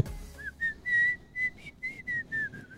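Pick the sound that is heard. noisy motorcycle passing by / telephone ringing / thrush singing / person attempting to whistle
person attempting to whistle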